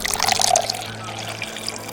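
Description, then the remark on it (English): Root beer pours steadily for about two seconds, a bubbly, fizzing splash with crackling carbonation. The stream is fairly loud and continuous, with a low murmur underneath. “Can I have some more of that root beer?”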